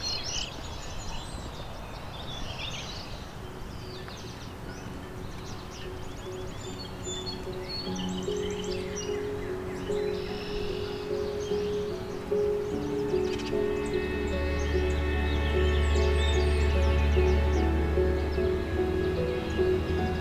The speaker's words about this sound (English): song sparrow.